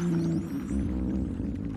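Hippopotamus calls recorded underwater, a low, resonant droning groan that holds steady for a couple of seconds, with faint higher squeaks sweeping above it and no voices present.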